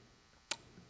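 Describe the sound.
A single sharp, crisp click made with the mouth, imitating wood popping in a bonfire, isolated against a quiet background.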